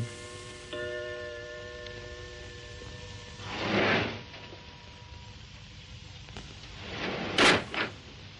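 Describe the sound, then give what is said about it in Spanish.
A sliding frosted glass door glides open with a soft, rising whoosh, and a brief steady hum fades beforehand. A second, sharper swish and a light knock follow a few seconds later. “se para ante una puerta de cristal esmerilado. La puerta corredera se abre y sale Ison.”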